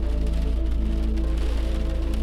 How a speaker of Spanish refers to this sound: Comencé a manejar sin toparme con ningún otro carro. La lluvia golpeaba el parabrisas.